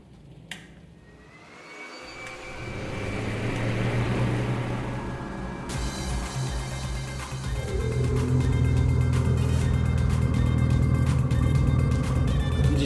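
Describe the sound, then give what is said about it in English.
Engines rev loudly in a sustained roar that builds over the first few seconds, then surges to a harsher, fuller pitch and holds at full power with no talking. “Get ready for the jet engine challenge.”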